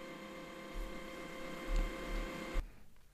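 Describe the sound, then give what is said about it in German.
A printer runs steadily in the background with a mechanical hum and whirring tones, punctuated by a few low thumps, then abruptly stops near the end, leaving quiet. “Im Hintergrund hörst du meinen Drucker.”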